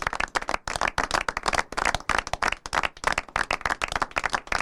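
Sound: clapping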